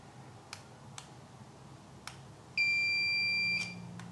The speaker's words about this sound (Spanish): Ahora quiero que nos despidamos con el pitido que hace Braille cuando se apaga. Alarmante. Pero lo bueno es que se puede desactivar.